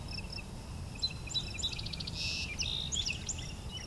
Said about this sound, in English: you might hear I have a wood thrush pretty far off.